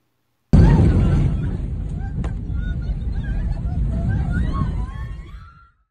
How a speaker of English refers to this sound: What you heard were screams from a video a passenger took as they watched their plane catch on fire. The problems began when a fire broke out on the flight while on its way to Murmansk. The flight then returned to Moscow to make an emergency landing.